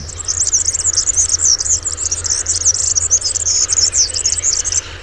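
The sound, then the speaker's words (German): A European serin, a small yellow finch, sings a rapid, high-pitched jingling song without pause, a dense stream of thin buzzy trills and twitters, with no voices present. “Also unser heutiger Vogel der Woche ist ein klassischer Einwanderer des 19. Jahrhunderts übrigens, der Girlitz.”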